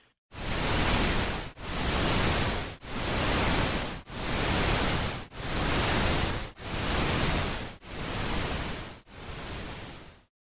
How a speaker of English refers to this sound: So those sounds, I mean, it, it kind of sounds like ocean waves and basically it's at the same pulse rate as your. And I know it sounds kind of weird, but basically it's all about the pulse rate of those sounds